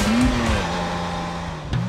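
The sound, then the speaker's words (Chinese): A sports car engine revs with a rising, then steady, low growl as it drives up, loud and continuous with a brief surge near the end; no one speaks. It is a supercar driven by a driver dressed as a superhero, coming to pick up a passenger for an Uber event. “据说司机会 cosplay 成超级英雄的模样，开着超跑豪车来接你，开启你的英雄之旅。”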